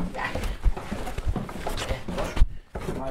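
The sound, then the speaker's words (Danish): Footsteps thud down wooden stairs, five or six dull knocks at a steady, unhurried pace, with soft rustling and room noise between the steps. “Jeg optager lige lyden af, sko af dine fødder på trappen.”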